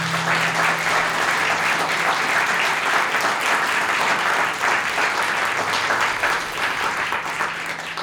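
Sustained audience applause, a dense, steady wash of many hands clapping at an even loudness for about eight seconds, with no voices rising above it.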